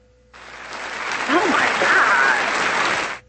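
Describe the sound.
A burst of group clapping, about three seconds of dense, steady applause that starts abruptly and cuts off sharply, with a brief voice rising through it near the start.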